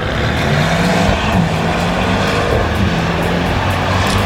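A racing car engine roars steadily and loudly throughout, a dense continuous drone with a low, buzzing hum and no voices.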